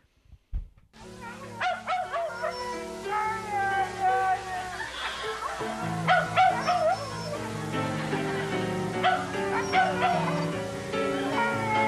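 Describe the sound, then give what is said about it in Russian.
Several dogs perform together with music, yipping, barking and howling in overlapping bursts over a steady sustained musical drone, the dog voices rising and falling, fairly loud throughout. “Ну, та, которая брешет, та нервничает. А та, которая я, подвывает? Та, которая подвывает, та, пожалуй, поет.”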